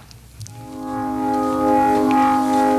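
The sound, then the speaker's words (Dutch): A recorded pop song begins playing, with sustained, harmonically rich instrumental tones swelling in after a brief quiet moment and holding steady at moderate loudness. No singing or talking yet. “En bij … was ook zo'n nummer. Oké, dan gaan we dus naar luisteren.”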